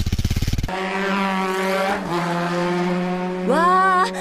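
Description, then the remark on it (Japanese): A motorbike engine putters briefly, then settles into a steady, buzzing drone that climbs in pitch near the end as the bike revs and pulls away, loud with no talking. “バイク乗ってここまでかっこ悪い人初めて”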